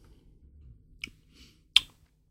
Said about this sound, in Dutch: dan moet ik natuurlijk, voordat ik het volgende stukje neem, eens een slokje bier nemen.